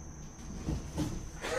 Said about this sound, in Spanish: Igual un grillo, tiene que ser una familia de grillos, porque no puede un grillo hacer este ruido. Debe ser una familia grande de grillos que viene a pasar año nuevo acá.